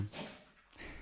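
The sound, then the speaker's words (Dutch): A dog sneezes: a quick, breathy snort of air at the start, then a second soft, hissing puff near the end, both fairly faint against a quiet background. “Gezondheid, hond.”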